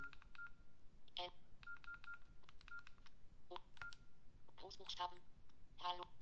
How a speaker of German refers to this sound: Hallo soll als Beispiel mal genügen, das heißt, ich kann ganz normal über die Telefontastatur schreiben und jeder Buchstabe wird mir angesagt.